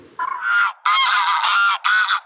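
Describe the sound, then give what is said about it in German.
Three loud, harsh honking calls from migrating geese follow one another in quick succession, clear, with no one speaking. “Vogelzug: Bon Voyage!”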